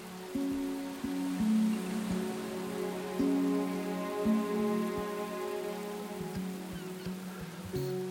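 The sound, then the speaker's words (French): Steady, dense rain hisses continuously throughout, heavy, with a low sustained droning tone that shifts pitch in steps underneath. No one speaks. “Des empreintes de pas qui apparaissent un jour, soudain, durant le mois de mai 2013 sous une pluie battante, sur une plage, au bord de la mer, au pied d'une falaise.”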